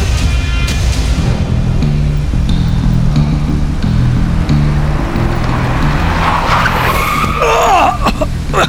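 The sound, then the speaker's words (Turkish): Car tires screech in a sudden skid as a vehicle brakes hard, loud over a steady engine rumble, with the squeal rising sharply toward the end. “Bak sinyal bile vermedi”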